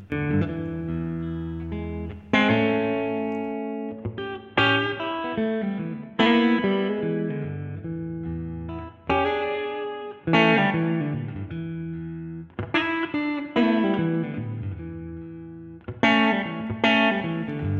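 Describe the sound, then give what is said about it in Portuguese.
Electric guitar soundtrack music, played by the guitarist who helped compose it, plays strummed chords with effects, sustained and shimmering, each chord struck sharply then ringing out in a slow, steady pattern of repeated attacks. No voices are heard. “Tá ouvindo essa guitarrinha que você está ouvindo no fundo aí agora, enquanto eu estou falando?”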